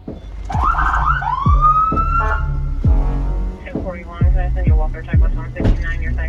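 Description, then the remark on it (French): A police car siren in Flint is switched on briefly in short bursts, rising wails and yelps mixed with heavy low thumps, loud, as an officer tests the sirens and flashing lights at the start of a patrol shift. “Il va tester ses gyrophares, ses sirènes est en train d'enfiler un gilet pare balles prend sa radio sur lui.”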